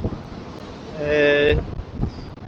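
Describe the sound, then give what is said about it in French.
Strong, gusty storm wind roars across the microphone at the seaside with a rough wash of stormy sea waves beneath, the waves flooding a seawall, a brief whistling howl rising in the middle, and a muffled voice murmuring faintly. “Euh, bah, je voulais vous faire entendre un petit peu le bruit des vagues là, parce que c'est un peu la tempête.”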